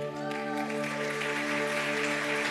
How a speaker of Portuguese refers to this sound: Uma salva de palmas para a mídia.